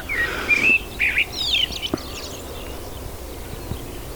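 A common blackbird sings its morning song, a few short, bright phrases of whistles and twittering notes over steady outdoor background noise, then falls quiet. No one speaks.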